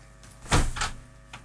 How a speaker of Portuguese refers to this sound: A porta vai abrir.